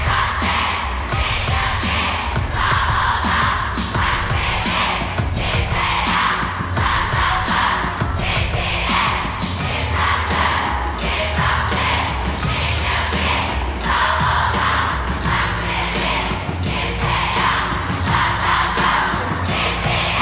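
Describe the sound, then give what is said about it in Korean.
A huge crowd of a band's fans chants in loud, rhythmic unison, calling out the names of the band's members one by one while the group is on stage, in strict cadence, each call punctuated by sharp accented beats, with continuous roaring noise underneath for the full twenty seconds. “그 …이 무대에 설 때 응원하는 소리가 있는데 바로 그 멤버 한 명씩 이름을 불러주는 건데 얼마나 열정적인지 한번 들어보고 올게요.”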